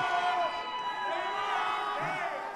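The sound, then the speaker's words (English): A student section cheers loudly and steadily during free throws at a basketball game, a dense wash of many shouting, whooping voices that keeps up without pause for the whole moment. “You might hear him in the background.”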